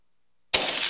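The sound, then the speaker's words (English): After a moment of silence, a sudden loud crash of shattering glass erupts, followed by a bright, sustained tinkling of shards, as a house is trashed by a gang of thieves ransacking the place during a break-in. “That's the sound of a house being trashed while a gang of thieves ransack the place.”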